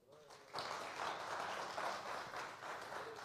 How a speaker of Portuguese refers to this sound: Dele un aplauso a él.